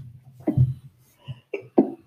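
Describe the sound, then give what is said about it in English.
A sneeze with a sharp burst, followed by a few shorter, softer explosive bursts in quick succession, against a quiet background with no talking. “bless you.”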